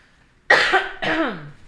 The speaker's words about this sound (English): I'm gonna and- cough again.